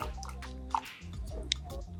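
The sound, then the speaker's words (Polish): Water is poured into a perforated plant pot set inside an outer cover, making a float in a water-level indicator rise. Soft squishy and dripping sounds with a couple of sharper splashes, over a low steady hum. “Włożymy doniczkę w osłonkę i w momencie, nalewania wody, tutaj pływaczek, który jest e, w tym wskaźniku, zacznie się nam unosić.”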